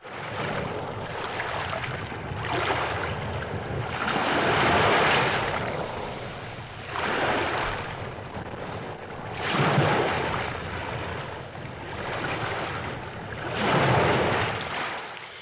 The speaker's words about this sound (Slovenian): Nekje na začetku poti je med drugim napisal, da želi prisluhniti temu nemirnemu morju.